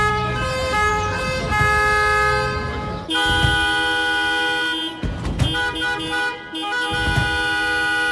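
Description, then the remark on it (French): Several car horns, used as part of the music in a rehearsal, honk loudly and continuously, their pitches differing from car to car and overlapping into a dense, sustained chorus with brief breaks and a few abrupt bursts, with no voices present. “Et puis, euh, le reste de la musique avec des klaxons aussi.”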